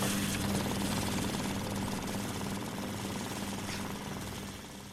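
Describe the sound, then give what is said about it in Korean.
Banknotes being counted by machine, a rapid, steady mechanical whirring flutter with a low hum underneath, running continuously for about five seconds and easing off slightly at the end. No one speaks. “적금 탔을 때 돈 세는 소리가 얼마나 좋은지.”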